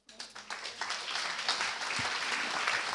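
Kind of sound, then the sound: crowd, audience applause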